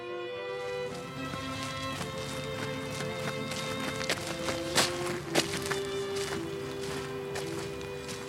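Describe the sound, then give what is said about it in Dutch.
Steady footsteps of people walking outdoors on a hard surface in a park, from the graves of Wilhelm's five dogs toward his mausoleum, a regular clopping rhythm over a constant tonal hum, with a couple of louder knocks partway through. “Zullen we daar nog heel even naartoe ja, lopen? laten we daar doorheen lopen.”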